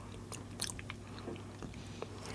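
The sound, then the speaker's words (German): Quiet bites into a still-warm, freshly baked flaky pastry: a few short, crisp crunches scattered over a couple of seconds, followed by soft chewing against a faint low hum. “Der schmeckt interessant, gell? Mhm. Wie so”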